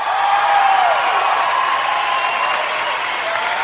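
Steady applause on the radio show Haiyang Live Show as a host takes the stage, a dense continuous wash of clapping that holds at an even loudness for several seconds with no voices over it.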